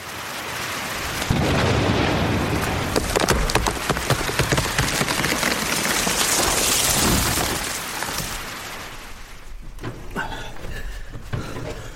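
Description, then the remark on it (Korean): A thunderstorm with lightning striking a pine tree at the Geonwonneung royal tomb: a sharp, loud crack bursts in and rumbles with crackling noise for several seconds, then eases into steady rain with a few softer rumbles. “주상전하, 능집에 있는 소나무에 벼락이 떨어졌다 하옵니다.”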